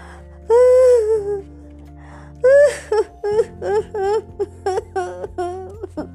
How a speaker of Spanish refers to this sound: Estaba llorando, acurrucada contra el tronco de un árbol.